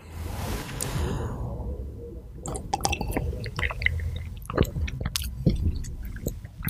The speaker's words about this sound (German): Und die haben zum Beispiel, ähm, das so, noch eben einen Schluck von dem guten Whisky. Ich meine von dem, ähm, was, was ist, hat so eine ähnliche Farbe. Ähm, von dem Wasser mit Sojasauce.